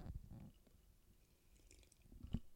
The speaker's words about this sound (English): As I sip my bourbon.